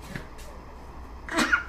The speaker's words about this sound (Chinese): 不好意思，打个喷嚏。